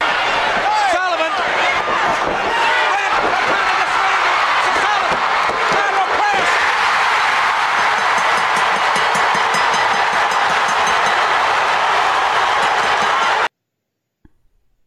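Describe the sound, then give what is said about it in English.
A large wrestling arena crowd roars and cheers at full volume as Rick Steiner wins the TV title by pinfall, a dense, sustained wall of noise with a few sharp bangs early on, holding steady for about thirteen seconds before cutting off abruptly. “That crowd went nuts when he won, Harper.”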